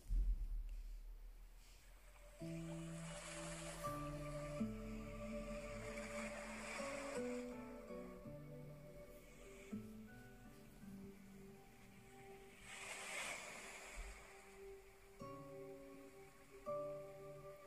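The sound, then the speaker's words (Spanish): Ocean waves wash in and recede in slow swells, each surge rising to a broad hiss, beneath soft sustained melodic music and a low steady rumble; no one speaks. “Escucha las olas del mar.”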